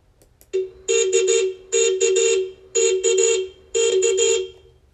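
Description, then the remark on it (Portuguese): A car horn honks in a rhythmic pattern of quick beeps, grouped in bursts of three or four, loud, with no talking. “É a buzina do carro.”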